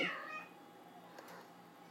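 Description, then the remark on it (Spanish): A domestic cat lets out a drawn-out, wavering meow at the start, followed by softer, fainter cat sounds and a brief squeak near the end, with no talking. “mis gatos están haciendo no sé qué.”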